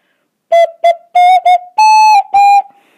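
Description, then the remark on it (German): A short ocarina melody of six breathy, flute-like notes, two quick ones then longer held tones, rising slightly in pitch and played clearly with no talking over it, on an Ocarina of Time (Zelda) ocarina. “Ich kann nicht wirklich richtig Ocarina spielen, aber es ist, ist okay.”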